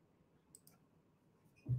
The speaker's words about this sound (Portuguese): A pessoa está com o pezinho agitado, você está com a mão, com a caneta agitada, assim.